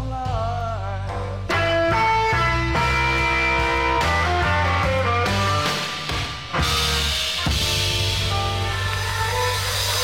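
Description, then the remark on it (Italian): A live blues rock song recorded in Boston in 1970 plays from a vinyl record: a full band with bass, guitars and sung melody, loud and continuous, with a brief dip partway through before the music surges back. “suono vinilitico mm, meraviglioso che arriva dalla, da questo disco de, per la Varric Records, eh, appunto Boston 1970,”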